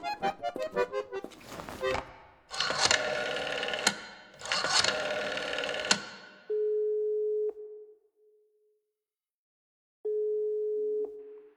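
After a burst of clicking and rustling handling noise, an outgoing call's ringing tone sounds twice, a steady low-pitched electronic tone about a second long each, separated by a few seconds of silence.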